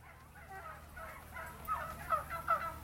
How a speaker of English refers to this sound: Once we grabbed our apple picking buckets, we headed toward the orchard, only to pass by a large barn full of turkeys.